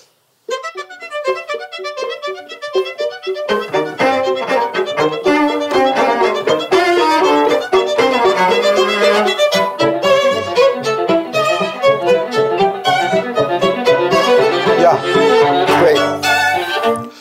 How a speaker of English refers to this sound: So let's just begin with that a little couple of measures at the beginning of the first movement.